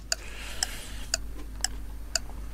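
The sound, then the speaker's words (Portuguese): A clock ticks steadily, five sharp clicks spaced about half a second apart, crisp over a low background hum, timing a round of questions against the clock, with no voices present. “Ai, são perguntas complicadas. Por isso é que é contra-relógio.”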